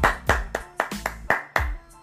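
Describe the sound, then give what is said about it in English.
A single person claps their hands about seven times in a quick, steady rhythm to welcome someone to the stage, each clap sharp and fairly loud, with no talking over them. “Hold on, let me go ahead and clap and bring you to the stage.”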